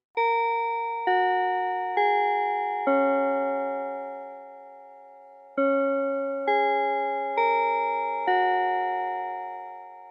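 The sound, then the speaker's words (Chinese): A melodic bell chime strikes eight tones in two groups of four, each note ringing with a bright harmonic shimmer and slow decay, with a short pause between the phrases and no talking. “钟声过，开始今天的科技早自习喽。”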